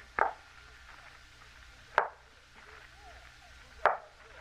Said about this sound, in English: There's no one outside the door. Someone knocked at the door. I think we must have been mistaken. Listen. There is someone outside.